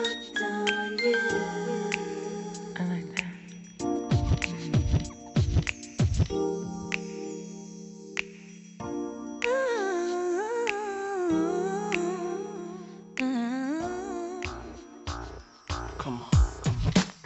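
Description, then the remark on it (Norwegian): A pop song with a looping hip-hop sample underneath: a steady bass groove and chiming tones first, then a sung melodic vocal line rising over the loop, loud and continuous throughout. “Og den samplen her syns jeg bare er eh, bare er genial. La oss høre.”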